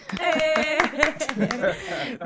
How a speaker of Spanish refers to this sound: ¡Aplauso! ¡Uh!